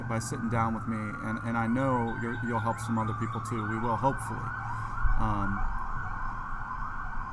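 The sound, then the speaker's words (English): An ambulance siren wails steadily in the background, its rising and falling tone sustained under two people talking in the foreground as it passes outside. “that was the ambulance.”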